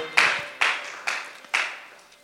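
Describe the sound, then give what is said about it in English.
An audience gives a clap offering as they take their seats: four sharp, bright claps about half a second apart, each ringing out briefly before the next, with no one talking. “Why don't you take your seat with a clap offering”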